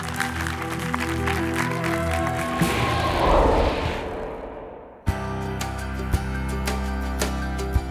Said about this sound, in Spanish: Buenísimo, un aplauso al Señor allá.